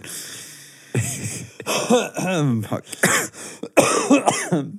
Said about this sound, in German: oh Mann, oh, ich will nicht mehr husten.